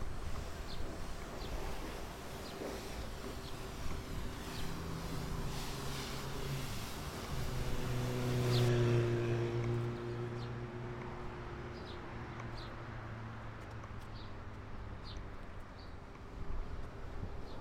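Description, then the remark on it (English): At a car wash, a car covered in cornstarch-based color powder is being washed: steady mechanical hum and a broad hiss of spraying water fill the space, the hiss cutting off partway through while lower droning machinery continues, with faint clicks and clanks. “I'm uh, standing here at the uh, car wash.”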